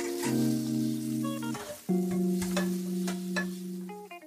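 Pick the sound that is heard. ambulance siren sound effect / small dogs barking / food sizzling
food sizzling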